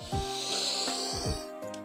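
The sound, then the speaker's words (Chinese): Several quick, hard sniffs through the nose, short breathy hisses repeating in uneven bursts, of rabbits sniffing hard under a bear's window at the smell of bread coming out of the oven, with no talking. “每当面包要出炉的时候，兔子们闻到从那里飘出来的香味儿呀，都会停止玩耍，跑到熊的窗口下，使劲儿的吸鼻子”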